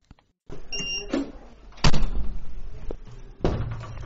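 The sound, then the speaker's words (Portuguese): A hospital door opens with a short squeaky creak, then swings shut with a heavy thud, followed by a second solid bang a moment later. Fairly loud, with no voices. “entrar pela primeira porta, trocar o uniforme e passar pela segunda porta até a enfermaria.”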